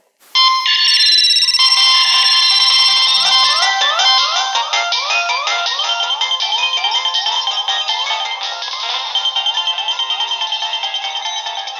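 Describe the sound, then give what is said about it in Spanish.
Mobile phone ringtones chime loudly and continuously, with bright electronic melodic tones repeating in quick patterns and overlapping one another. No one speaks. “Este nada más y nada menos que es el sonido de los celulares.”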